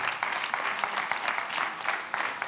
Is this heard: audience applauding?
yes